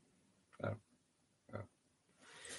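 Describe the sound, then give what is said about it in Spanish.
Two short, low pig grunts about a second apart inside farm pig sheds, followed by a soft hissing rustle like straw or ventilation noise. “que dice que este verano que no viene que hace mucha calor y que aquí en las naves con los cochinos, que, no quiere venir.”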